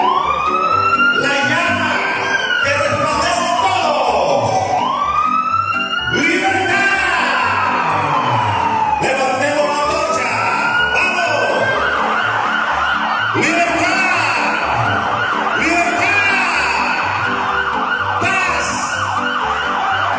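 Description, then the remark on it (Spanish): A loud alarm siren wails continuously, its pitch sweeping up and down in repeated overlapping cycles, with a steady low rumble running underneath throughout. “La alarma.”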